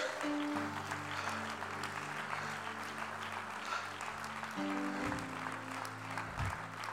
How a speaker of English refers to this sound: Oh, come on, clap your hands unto the Lord.